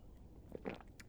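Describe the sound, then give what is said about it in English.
A few soft, wet gulping swallows, quiet and spaced irregularly over about a second, with no one talking. “what are you gulping over there?”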